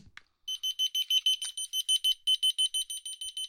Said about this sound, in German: es macht ehrlich gesagt auch nicht viel Sinn, wenn ich jetzt äh, so einen also Pieper hier in 300 Meter Entfernung habe. Stellt euch jetzt mal wirklich vor, wir sind da am Strand mit Meeresbrandung, mit Rauschen und so weiter. 300 Meter Entfernung.